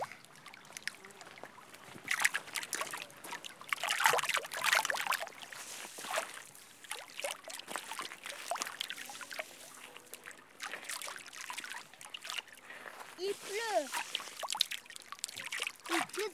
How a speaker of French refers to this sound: J'enregistre la rivière. On va enregistrer l'eau, l'eau de la rivière. On va jeter des cailloux dans la rivière.